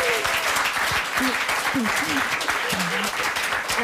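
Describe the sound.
Steady audience applause for Helene Hegemann, with dense, continuous clapping throughout, while a few voices murmur and call out underneath it.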